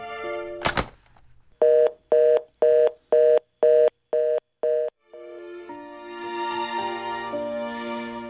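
A telephone handset is picked up with a thunk, then seven short, evenly spaced keypad beeps ring out as 119 is dialed to call for help to get to hospital, followed by a steady dial tone with faint background noise.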